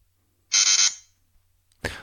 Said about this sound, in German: Beim Colorstar kommt dann ein entsprechendes Fehlergeräusch und der misst erst gar nicht.